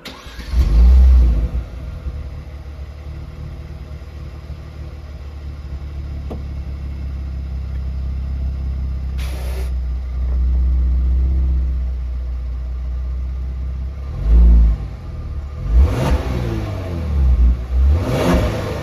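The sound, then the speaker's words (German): A Kia Stinger car engine starts and idles with a steady low rumble, then revs up sharply in several loud bursts near the end, with no talking. “Folge 84: Kia Stinger”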